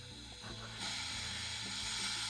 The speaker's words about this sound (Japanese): あ何してるんだ何何何あ抜いてるんですか炭酸をちょうどいい塩梅に